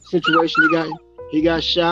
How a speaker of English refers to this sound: That's my dog in the back, my little pit bull man named Takashi. If y'all hear him, he probably he want to be in the show.